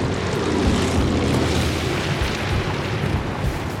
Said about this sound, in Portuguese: Quando as rodas tocam o chão, o avião derrapa e se desestabiliza na areia antes de conseguir parar.